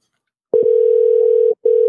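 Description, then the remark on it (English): A loud telephone ringback tone as a call is placed to a woman: a steady electronic buzz holds for about a second, breaks briefly, then starts again. No one speaks. “You might have to play it because I'm calling her.”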